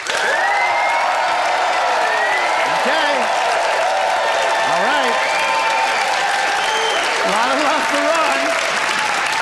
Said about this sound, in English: and it is now time to vote by applause.